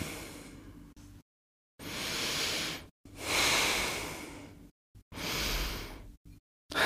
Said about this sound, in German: So. Können wir kurz atmen? Wir können mal kurz durchatmen.